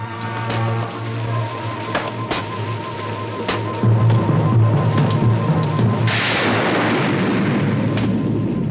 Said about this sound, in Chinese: 就在这雷电暴雨之中